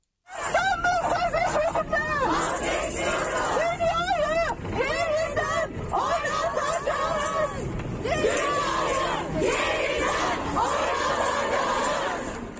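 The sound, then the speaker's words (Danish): A dense crowd of women shouting and chanting together in a street protest in Turkey, after President Erdogan withdrew Turkey from the Istanbul Convention. The sound is loud and continuous, with overlapping voices rising and falling in waves throughout. “Ja, og så lovede jeg jo, at øh, vi skulle en tur til Tyrkiet, så lad os gøre det nu, for det lød altså sådan her, da især kvinder kiggede på gaden i går.”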